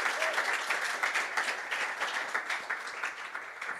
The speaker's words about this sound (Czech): Díky moc a pojďme mu zatleskat